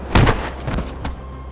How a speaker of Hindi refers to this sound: अचानक कोई भारी वस्तु धड़ाम की आवाज से फर्श पर नीचे गिरी